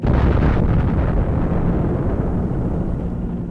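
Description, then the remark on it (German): A massive explosion of Little Boy, a 4-tonne uranium atomic bomb, over Hiroshima on the morning of 6 August 1945, roars with a deep, sustained rumble that fills the whole clip, loud and continuous, easing only slightly toward the end. No voices are heard. “August 1945 um 8.16 Uhr Ortszeit explodiert über Hiroshima Little Boy, eine 4 Tonnen Uranbombe, deren apokalyptische Wirkung jede menschliche Vorstellung übertrifft.”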